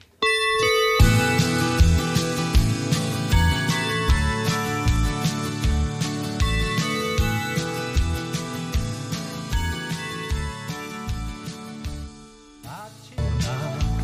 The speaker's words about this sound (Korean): 근데 노래 시작 전에 딩동댕 하면서 종소리 음. 나오잖아요. 종을 네. 치는 거예요. 뭐예요, 이거는? 어떻게 녹음할 때 어떻게 하는 아, 거예요? 아, 그 건반에 네. 건반에 네. 다이 종소리들이 다 내재돼 있습니다.